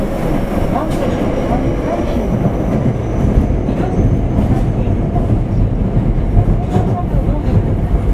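A Kita-Osaka Kyuko 8000 series subway train, running from Dobutsuen-mae to Shin-Osaka and approaching Namba station, runs steadily with a loud, continuous low rumble and rolling wheel noise, faint rhythmic clatter and occasional brief metallic squeaks, with no pause in the motion.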